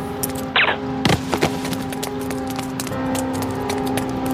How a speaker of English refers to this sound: Unaware of the ironic implications of his own double cross, Stefano, in Bryan's resculpted body, smugly walks the crowded streets until suddenly a silenced rifle spits death.